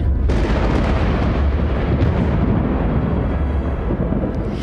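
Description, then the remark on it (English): A loud, sustained rumble of thunder as the earth rolls and shakes in an earthquake, with deep, rolling low-end roar, starting abruptly and continuing without pause. No voices. “The earth rolled and shook, and the sound of thunder split the air as death itself had no power to hold the Son of God.”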